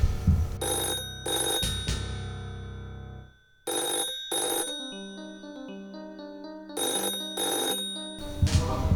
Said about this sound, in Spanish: Hasta que un día llega una llamada misteriosa.